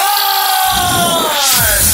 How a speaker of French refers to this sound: Avez-vous entendu la foule au Saddle Dome? On est à maison! On est à maison ici!